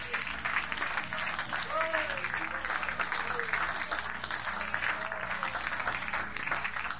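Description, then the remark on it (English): A large church audience claps hands to Jesus, steadily and densely for several seconds, a continuous wash of applause with scattered voices calling out over it. “Well, somebody clap your hands to Jesus tonight.”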